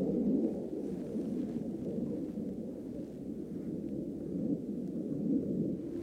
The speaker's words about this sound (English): Is a fighter jet? It's most likely a military plane, he tells me, unsure if it's Ukrainian or Russian.